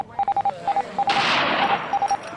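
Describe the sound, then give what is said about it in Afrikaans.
Morse code beeps, tied to the sinking of the RMS Titanic: a steady mid-high tone keyed on and off in quick groups of short and longer pulses, with a loud rushing, crackling burst of noise breaking in partway through. “Maar morse kode en fakkelsyne kon nie die RMS Titanic red nie.”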